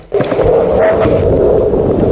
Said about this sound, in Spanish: Seguimiento automático. Seguimiento automático. Lanzamiento desde la base militar de Médano del Loro en Moguer. La rampa está en perfecto estado. No hay ningún incendio. No hay incendios en la rampa.